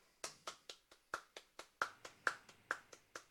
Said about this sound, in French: On lui donne une bonne main d'applaudissement.